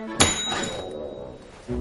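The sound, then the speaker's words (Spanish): A single sharp ding of a reception desk bell on a counter, bright, its metallic ring sustaining and slowly fading over a second or so. “No hace falta que toques el timbre.”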